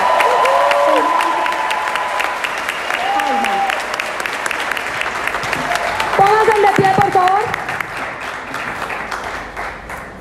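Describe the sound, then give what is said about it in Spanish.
Loud, sustained audience applause given in gratitude to the leadership of Paraguay, a dense steady wash of many hands clapping that lasts throughout, with a voice speaking over it now and then. “En ese sentido de agradecimiento de corazón, un fuerte aplauso a todo el liderazgo de Paraguay, señores. Un fuerte aplauso.”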